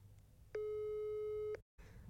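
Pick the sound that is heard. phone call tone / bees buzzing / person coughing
phone call tone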